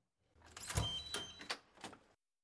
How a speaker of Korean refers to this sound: 문 밖에서 도어락 열리는 소리가 들린 뒤 문이 열렸다.